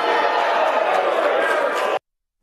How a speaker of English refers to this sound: But I mean people are booing him in his home state because he does stuff like this.